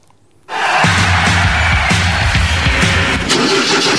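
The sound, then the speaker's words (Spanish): After a brief quiet moment, race car engines burst into a loud, continuous roar with deep rumbling tones and sputtering bursts at the start of the Class 3 final race, where Lucas Vicino's car stalls, staying steady and intense until the end. “Hemos elegido el momento en el que queda detenido el auto de Lucas Vicino en la puesta en marcha de la carrera final de la clase 3.”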